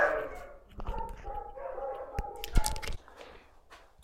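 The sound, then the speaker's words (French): Dogs bark and yip at moderate volume, with whining, drawn-out tones between a few sharp, punchy barks near the middle before everything fades to quieter background. “Les chiens sont calmés.”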